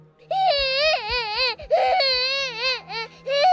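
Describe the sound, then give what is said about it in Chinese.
A child cries in long, wavering wails, high-pitched and loud, broken by short gasping breaths between sobs, with a faint low hum running underneath throughout. “据说他偶尔能在走廊尽头的卫生间那里听到小孩的哭声。”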